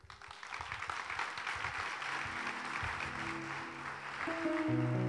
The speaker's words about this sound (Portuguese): Aleluia. Aleluia. Aplaudo o Senhor.